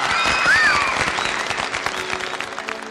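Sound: applause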